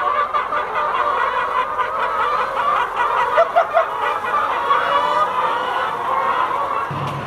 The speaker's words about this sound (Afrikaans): Ons het so 500 van hierdie uh, Highland Silver lêne en produseer ons eie vryloop eiers hier op die plaas van ons vryloop uh, hoenders.